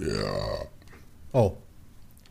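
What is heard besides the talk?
sneeze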